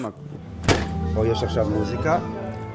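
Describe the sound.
A door opens with a single sharp clunk, and a lively murmur of many voices fills the space right after, steady and fairly close, like a crowded room beyond the door.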